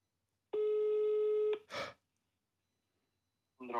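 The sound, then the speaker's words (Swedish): A single steady electronic telephone ringing tone sounds for about a second as a call is placed live to a directory enquiries service, followed by a breathy exhale, then a short burst of voice near the end. “Nu ringer.”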